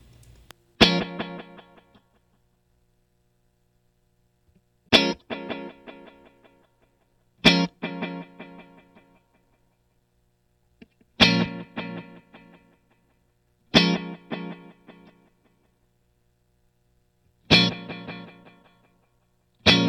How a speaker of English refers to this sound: And, and maybe without the reverb too. Maybe if you just pull the reverb out, just to hear the the pattern delays by themselves.